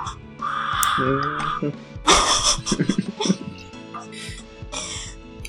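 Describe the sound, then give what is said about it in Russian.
A voice actor voicing the character Rin in a voice drama screams and cries out in strained, ragged bursts with harsh gasping breaths, loud, over faint background music. “замотивирован теперь послушать, как кричит Рин.”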